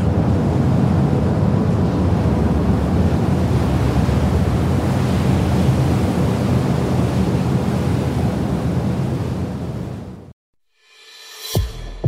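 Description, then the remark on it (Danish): Steady rushing water and wind noise wash past continuously for about ten seconds, loud, like water churning along a moving boat's hull, as heard out on the boat's deck, before cutting off abruptly. “så man kan gå ud til, til ud på dækket og lige se og høre vandet.”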